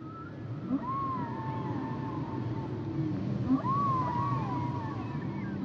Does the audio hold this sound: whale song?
yes